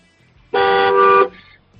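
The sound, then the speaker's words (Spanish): A single loud car horn honk, a steady blaring tone lasting under a second, against a quiet low rumble, with no one talking. “A ver, dale un toque, un toquecillo de dos o tres segundos, a ver.”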